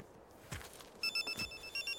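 A telephone rings with a bright, repeating electronic trill in quick pulses, clear, after a couple of soft thuds like footsteps; no one speaks.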